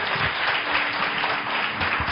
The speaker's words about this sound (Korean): 우리 뜨거운 사랑과 또 축복의 박수로 환영하도록 하겠습니다. 할렐루야. 우리 하나님께 감사의 박수 올려드립니다.